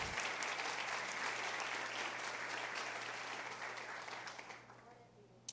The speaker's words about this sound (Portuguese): Se você entendeu, aplauda.